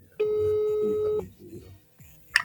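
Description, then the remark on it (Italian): A single long ringback tone from an outgoing phone call to a travel agency, steady and fairly loud for about a second, with faint background voices beneath and a brief click afterward. “Quindi io direi adesso chiamiamo, mettiamo in via la voce.”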